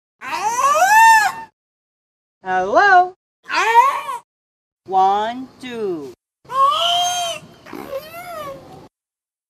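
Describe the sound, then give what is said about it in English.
An orca in America mimics human words in six squeaky, wheezing bursts that rise and fall like speech, each separated by short silences, loud with no other sound around them. “you don't need us to actually break the news to you that in America, uh, they made one of these poor things talk.”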